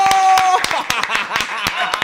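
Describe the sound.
Loud audience applause welcoming a guest onto a show, a dense crackle of many hands clapping with sharp individual claps standing out, a brief high whistle-like tone at the start and crowd voices mixed underneath.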